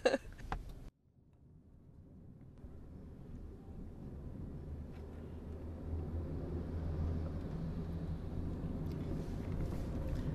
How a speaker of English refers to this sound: Well, I, I mean, yes, we are on a in a car on a highway.